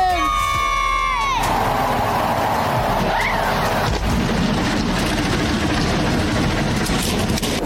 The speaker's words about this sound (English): Let's relive all of the twists and turns from a Sunday afternoon in the Arizona desert. Drivers, start your engine!